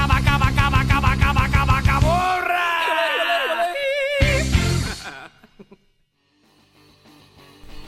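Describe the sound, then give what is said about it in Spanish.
A loud rock song with shouted, wailing vocals over pounding, dense instruments, building to a strained sustained yell before stopping abruptly, followed by near silence. “Y vamos regresando de escuchar esta gran rola”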